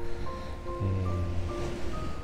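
Calm sea waves wash softly and steadily onto the beach at the Hayama coast on a clear, sunny day. It is a continuous low hiss without big breaking crashes, with a faint humming tone briefly underneath. No voices.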